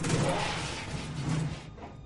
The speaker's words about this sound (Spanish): Se acerca al electrodoméstico y enfoca la parte trasera. Deja la linterna y arrastra la lavadora.